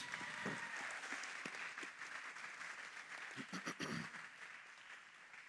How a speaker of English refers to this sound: Yeah, can we give this class just another round of applause?